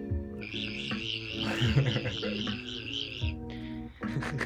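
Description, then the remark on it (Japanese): A person imitates a cicada by whistling and using the voice at the same time while wiggling the lower lip with a finger, producing a loud, trembling, wavering drone that runs for about three seconds, pauses briefly, then starts again in short pulses. “セミじゃんセミです実はセミでした”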